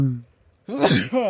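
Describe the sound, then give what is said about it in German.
A sudden, loud sneeze bursts out after a short pause, a harsh breathy blast with a voiced edge, followed by a brief vocal sound trailing off. “ja, Gesundheit.”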